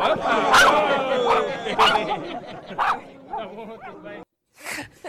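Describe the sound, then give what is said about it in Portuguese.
A dog barks a few times in short, sharp bursts, mixed with people talking in the background, followed by a brief silence and one more yelp. “Olha este animal. Dê! Está bom. Tudo bem, cão, estás bom?”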